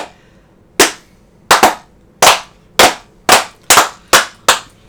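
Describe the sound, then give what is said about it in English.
A slow clap: loud, sharp hand claps, about ten of them in a fairly steady, deliberate rhythm, a few landing close together in quick pairs, with no talking. “I'm slow clapping.”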